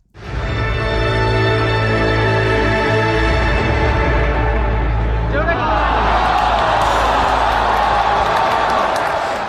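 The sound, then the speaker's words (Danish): Sustained musical tones play for several seconds, then give way to a loud crowd reaction to the 2017 announcement of the Dota card game Artifact: a murmuring, groaning audience with scattered, uneven applause continuing to the end. “Det var sådan, åh, oh, og så var der nogle klapsalver.”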